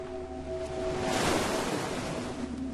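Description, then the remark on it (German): Rough, stormy Atlantic surf in the bay of Ribeira da Barca on Santiago island, Cape Verde, crashes in a broad, roaring wash of noise that swells to a peak midway and stays loud, with steady low rumble and faint tonal hum underneath; no voices. “Das Meer ist heute stürmisch. Maria und die anderen beobachten die Wellen.”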